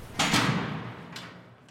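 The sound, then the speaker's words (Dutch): A heavy prison door clanks shut with a loud metallic impact in a long prison corridor, its boom ringing out and slowly decaying with an echo, followed by a faint second clatter. “Wat als er hier straks brand uitbreekt, denk ik nog, voor de laatste deur achter me dichtslaat.”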